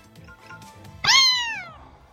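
A single high-pitched kitten meow rises sharply, then slides downward and fades over almost a second. It sounds clear, following a short stretch of quiet background.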